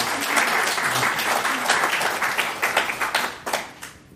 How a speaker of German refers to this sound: will jetzt bei jeder Folge so geklatscht kriegen. Das macht voll Spaß.